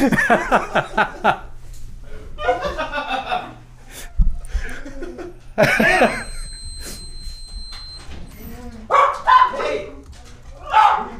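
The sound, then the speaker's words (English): A dog barks in short bursts, mixed with people laughing and talking; a low hum runs underneath and the barking comes in a few loud clusters. “the dog's just been fucking nuts.”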